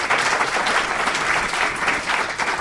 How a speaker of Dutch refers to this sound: Goed, een applaus ook voor Bernard.